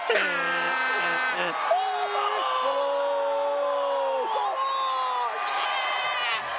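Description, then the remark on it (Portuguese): A group of neighbours cheers and yells a goal celebration for Portugal scoring against Korea, with long drawn-out shouts overlapping and rising together, loud and continuous from start to finish. “ouve os vizinhos gritar golo antes deste acontecer na sua televisão”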